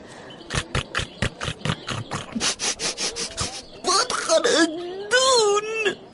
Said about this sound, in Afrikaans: Terwyl Mani en Driekie nog so besig is, hoor hulle 'n snaakse skuur geluid en toe gesnik reg voor hulle.